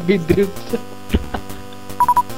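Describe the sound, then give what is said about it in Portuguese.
A steady electrical hum with faint hiss on a call line runs throughout, broken by scattered clicks and crackles, then three quick tone beeps near the end. “Interrompeu um pouquinho. Então. O Chiado você... voltou”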